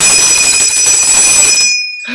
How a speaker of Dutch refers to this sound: En daarnaast heb ik een bel, een koperen bel. Ah, en die koperen bel die stond bij ons op de vensterbank.